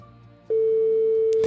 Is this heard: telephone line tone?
yes